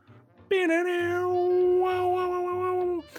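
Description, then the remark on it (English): A voice imitates an electric guitar riff with one loud, sustained, wailing note held at nearly steady pitch for about two and a half seconds, ending abruptly. “Um, as this like sick guitar riff comes out of nowhere”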